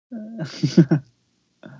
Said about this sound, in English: That's a burp.